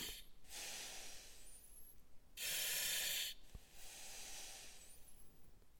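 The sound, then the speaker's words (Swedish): Rhythmic hissing of a breathing mask: three long airy bursts of air, the middle one loudest, with brief quiet pauses between, clear with no voices. “Det var pysljudet från andningsmasken.”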